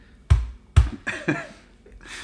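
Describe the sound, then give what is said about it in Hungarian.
Someone imitates keyboard typing: two sharp clicks followed by a few softer, clattering taps and a brief breathy hiss, heard alone without speech. “Csak, csak annyit lehet hallani, egy néma csend, és csak ilyen, ilyen billentyűzett kopogások, ilyen.”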